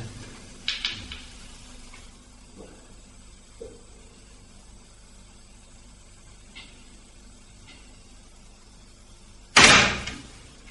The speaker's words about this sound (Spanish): Y de repente, y sin dilación, la puerta se movió sola y terminó por cerrarse. Y se grabó.